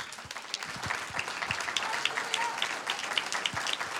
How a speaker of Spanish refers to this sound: Un aplauso al Señor.